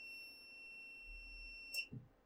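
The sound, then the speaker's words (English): A power inverter, just switched on with its toggle switch, emits a steady, shrill electronic alarm tone that holds for under two seconds, then cuts off abruptly with a click followed by a soft low thump. No one speaks. “That beeping doesn't sound too good.”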